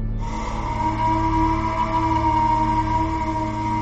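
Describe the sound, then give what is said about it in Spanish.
A lighthouse foghorn sounds one long, loud, unbroken blast, a deep droning tone with rich harmonics that holds steady for several seconds. No voices are heard. “La sirena del faro sonó.”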